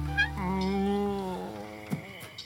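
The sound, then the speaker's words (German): A drawn-out, wavering whimper coming from bushes, fairly soft, sliding slowly down in pitch over a couple of seconds before trailing off with a faint catch at the end. “Klingt, als würde jemand wimmern oder weinen.”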